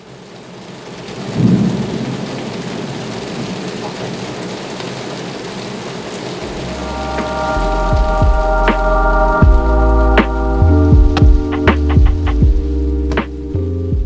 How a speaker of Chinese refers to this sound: 我现在录音的当下正在下大雷雨，不知道大家听不听得到。